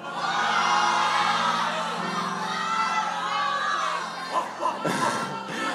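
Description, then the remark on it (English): A live audience shouts out answers all at once to the question dogs or cats, mostly calling dogs with a few cats, a loud sustained jumble of many voices yelling, tapering into scattered calls and laughter near the end. “We've got dogs. I've heard a few cats.”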